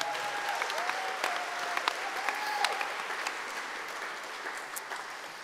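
A crowd applauds steadily, many hands clapping in a dense, sustained wash of sharp claps at an even level, with a faint whistle-like tone threading through the first half.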